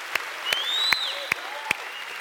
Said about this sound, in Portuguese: Dê um aplauso ao Senhor. Fique em pé comigo. Amém. Aplauda, aplauda ao Senhor, Jesus, bem forte. Aplauda ao Senhor.